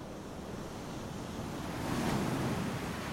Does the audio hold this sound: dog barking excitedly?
no